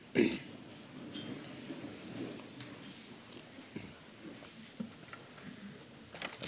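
A person with an itchy throat clears it in a few low, rough rasps, fairly quiet, with faint rustling and background noise around it and no talking.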